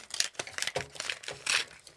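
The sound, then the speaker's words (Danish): A patterned paper envelope being carelessly torn open, a series of short, crisp ripping and crinkling bursts in an uneven rhythm, with no voices. “Nå, nu åbner jeg den uforsigtigt.”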